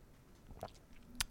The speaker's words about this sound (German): Moment. Da müssen Sie erstmal schlucken. Das, ne? war, das war gemeint, ich hatte gerade was getrunken und dann kommen Sie mit dem.